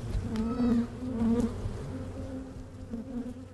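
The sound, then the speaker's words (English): A dense, steady drone of many honeybees buzzing around a hive in the swamp exhibit at the Audubon Zoo, with overlapping wingbeat hums rising and falling slightly. No voices are heard. “thank you so much for uh, taking me into this unknown part of the swamp exhibit where the bees live.”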